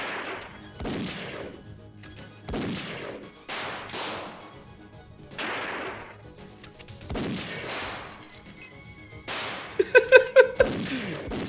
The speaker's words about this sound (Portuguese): Não tem localização, tipo, é um lado atirando, o outro do outro, e é isso.